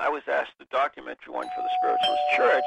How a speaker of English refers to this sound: oh my gosh, that's the doorbell